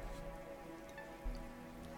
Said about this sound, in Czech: Obloha se začala plnit mraky a pomalu, ale jistě začínaly padat i kapky deště.